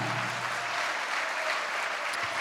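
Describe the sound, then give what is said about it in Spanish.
A church audience applauding the Lord steadily, a dense, even wash of many hands clapping together, sustained without pause and with no voices standing out. “Dale un aplauso al Señor, amado hermano.”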